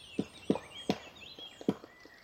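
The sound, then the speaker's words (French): A pair of black woodpeckers, male and female, chiselling a nest hole in a large poplar by a road deserted during the May 2020 lockdown: a series of irregular, hollow knocks, about two or three per second, some loud and some faint, with songbirds twittering in the background. “C'est un couple de pics noirs en plein travail sur un grand peuplier qui profite de la route toute proche aujourd'hui désertée”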